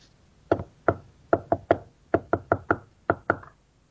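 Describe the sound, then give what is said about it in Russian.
Eleven sharp knocks rap out the Russian word "муха" (fly) in Morse code, an uneven rhythm grouped in short clusters with brief pauses between, on a quiet background with no talking. “Я знаю, как муху выбить на азбуке Морзе.”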